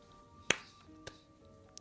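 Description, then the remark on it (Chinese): Sparse hand clapping from a character, Mr. Game, applauding in a narrated story: one loud, sharp clap followed by two quieter, irregularly spaced claps over faint background hum, with no voices. “游戏先生看着京子厉鬼般的样子，鼓掌说”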